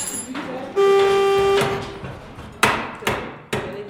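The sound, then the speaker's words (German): A car horn on a 30-year-old white Peugeot gives one steady, fairly loud honk lasting under a second as a trainee learns the car's electrical circuit in a workshop hall in Ouagadougou, followed by three sharp hammer-like clanks echoing in the workshop, with faint background noise throughout. “Gerade lernt sie, wie der Stromkreislauf eines Autos funktioniert. Hupe, Licht, Ventilator.”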